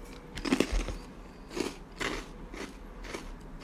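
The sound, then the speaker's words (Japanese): A crisp bite into a crunchy honey-fried rice cracker, followed by several sharp, crackly chewing crunches at an uneven pace, fairly loud with no talking. “では一番今回一つしか入ってなかった蜂蜜揚げいきます。”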